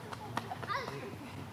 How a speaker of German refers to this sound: rennendes Kind.